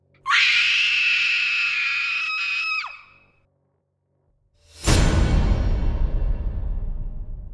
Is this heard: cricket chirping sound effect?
no